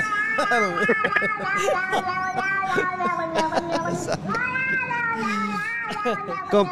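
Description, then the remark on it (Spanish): A person imitates a cat, letting out a few long, wavering, high-pitched meows in a continuous loud stream, each cry sliding up and down with a whiny, nasal tone. “Ah, échese, el, échese el grito, mamá. Miau”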